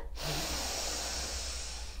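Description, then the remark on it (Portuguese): A long, deep inhalation drawn steadily through the nose during a conscious breathing exercise, a broad airy hiss that holds for about two seconds, fairly loud, with no talking over it. “Inspira,”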